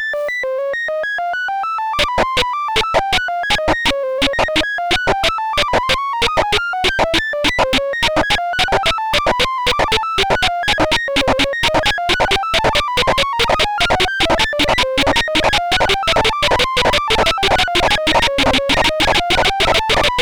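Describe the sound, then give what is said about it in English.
Short bursts of high-band and low-band noise repeat in a high-low-high galloping rhythm, starting slowly and steadily speeding up into a rapid, even stream of clicks as the bursts split into separate high and low strings. No voices. “A cycle of short bursts of noise is presented in a high-low-high galloping pattern.”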